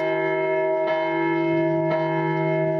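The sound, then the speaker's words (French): The church bells of the town of Compiègne ring steadily and loudly as a signal on the evening of 23 May, their rich overlapping tones sustaining throughout, with fresh strikes landing about once a second. No voices are heard. “À peine sortie, les cloches de la ville retentissent.”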